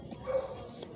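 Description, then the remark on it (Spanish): A dog yelps or barks once, briefly, outdoors against a steady hiss of background noise, with no one speaking. “Y disculpen el ruido del perro, eh, estamos en la interperi.”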